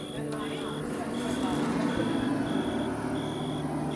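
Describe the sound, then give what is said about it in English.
A tractor engine rumbles low and steady as it drives off, while a high reversing beep repeats in even pulses, roughly twice a second, throughout. “If you can hear that background noise right now, that's the one eligible man in the area driving off in his tractor.”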